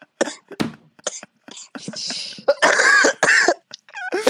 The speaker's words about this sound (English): Oh, sorry about the COVID lungs there, everybody. That's no, got to be great podcasting. Me coughing into my mic like that. It's great.